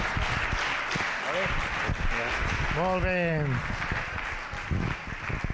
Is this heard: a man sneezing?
no